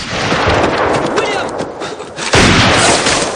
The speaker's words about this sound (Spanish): De repente... El ranchero ha sido alcanzado por un disparo. Al advertir el ruido, los demás hombres cogen sus armas.